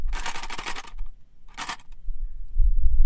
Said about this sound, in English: Guess. It's a pack of cutlery shitty color too. I bought it at the grocery store. I was like, oh, I don't really need 24, like eight forks, eight knives, eight spoons, but it's the smallest one I could get with all of them.